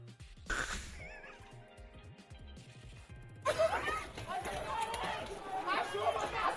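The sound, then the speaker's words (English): A horse whinnies briefly near the start amid background voices at a peaceful indigenous protest, with police horses up on a ramp, then a loud, dense crowd clamor of shouting and chatter swells up and continues to the end. “I wish they didn't have those horses up on the ramp like that. That looks dangerous for the horses.”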